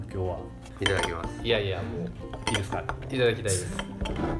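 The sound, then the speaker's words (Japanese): A capped 750 ml bottle of limited special lager from Hunters Beer, made with naturally grown soybeans and hops, with a large crown cap, is pried open with a quick, sharp hiss of escaping gas amid ongoing conversation and some light clinking of glass and tableware. “なんなのプシュって聞こえんじゃんあこれがさまたシャンパンボトルなんかな何ってほんまやねあんま見えへねそうなんや750ミリはいはいはいそうこの王冠もすごいでっかいよね”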